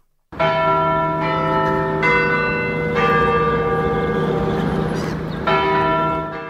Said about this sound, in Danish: Man skulle tro, klokken var 12, når du spiller den der. Ja, det er rådsklokkerne i København. Og de kører jo efter et ur.